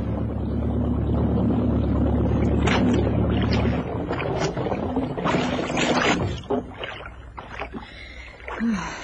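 A boat's motor hums steadily for a few seconds, then is cut, leaving the boat drifting in the sea swell, water lapping and sloshing against the hull with occasional creaks.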